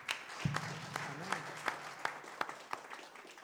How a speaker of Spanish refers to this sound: Mi hermano, un fuerte aplauso para nuestro Dios.